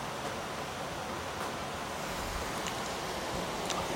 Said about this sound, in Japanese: でも今この雨の状態の音聞いてくれればわかるよね